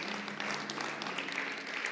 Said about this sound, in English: Come on, would you give God a hand clap of praise right where you're at?